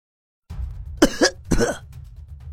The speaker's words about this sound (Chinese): 洛尘咳了咳嘴角的血渍